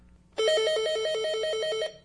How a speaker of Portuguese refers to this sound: E o telefone tocou convocando ao teste do esquecimento.